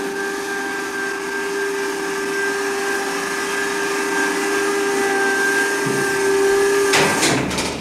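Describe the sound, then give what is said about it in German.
A steady mechanical whir with a droning tonal hum runs for several seconds as a hydraulic airlock door in a reactor building opens automatically by oil pressure, then shifts near the end into a louder burst of hissing clatter. No talking. “Gleich wird sich die Tür öffnen, sie wird automatisch mit Hilfe von Öldruck geöffnet.”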